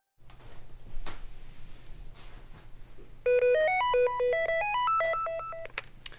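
A landline telephone rings in a Deutschlandfunk Kultur radio drama with a bright electronic melody, a quick run of stepped beeping notes that starts partway through and plays loud over a low background hum.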